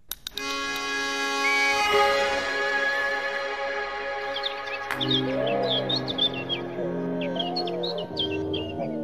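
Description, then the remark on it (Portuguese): A common whitethroat sings in quick, scratchy chirping bursts that grow busier in the second half, heard over a steady, sustained tonal drone that fills the background, at almost 1,000 metres altitude. “Entre as muitas espécies de aves que podem ser vistas com alguma paciência, está o Papa Amoras comum, uma ave de canto contagiante.”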